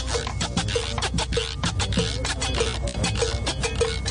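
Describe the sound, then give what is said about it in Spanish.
A güiro is scraped in a quick, steady rhythm, its raspy ratcheting strokes repeating fairly loud for several seconds, with no one speaking. “Este es el ¿Cómo suena el cuiro? A ver.”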